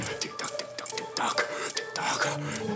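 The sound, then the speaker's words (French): A clock ticking: rapid, fairly regular ticking clicks run throughout, layered over a busy, rasping mechanical texture with faint sustained tones, no voices present. “C'est ça le tic-tac.”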